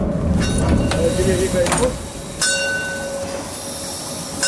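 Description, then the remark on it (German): A narrow-gauge steam train's bell clangs a few times as the train runs through the narrow streets of a town, its ringing tone hanging over the steady rumble and clatter of the rolling train. “So, begleitet vom Bimmeln des Molly.”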